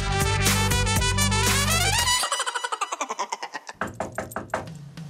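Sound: knocking on a door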